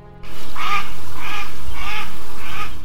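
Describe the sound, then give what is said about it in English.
A grey duck quacks four times in a steady, evenly spaced rhythm, each call loud and nasal, with no voices. “The mocking laughter of the grey duck rang in their ears as they flew”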